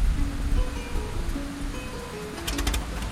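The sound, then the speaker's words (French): Steady rain falls in a constant hiss on a cold night before dawn, with low cooing tones drifting underneath and a quick burst of sharp patters near the end. No one speaks. “Il fait encore nuit, il fait froid, il pleut, mais Antoine de Saint-Exupéry apprécie le moment.”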